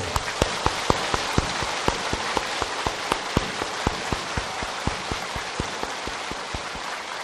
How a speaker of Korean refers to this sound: 어린이들 한번 서보셔. 다 어린이들을 축복하는 뜻으로 박수를 보내주십시오.